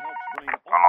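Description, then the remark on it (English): A phone number is dialed to call the speaker's father: a quick run of three electronic keypad tones, steady and fairly loud, with a short gap before the last, longer beep. “Can someone get my father on the phone, please?”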